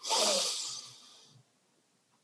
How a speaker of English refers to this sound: I invite all our listeners right now to take a breath, a conscious breath.